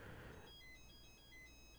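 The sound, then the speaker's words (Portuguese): A telephone ringtone plays as a quiet, repeating electronic melody of high beeping tones, following a brief burst of rustling noise. No one speaks. “E peraí que o telefone tá tocando.”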